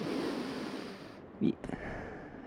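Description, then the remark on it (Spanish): Airy breathing sounds from a person deliberately demonstrating breathing through the nose and through the throat: steady rushing air, broken by one short, louder snort-like burst midway and a couple of quick catches afterward. “Ahí estoy respirando por el cerebro y... Ahí estoy respirando por, por la garganta.”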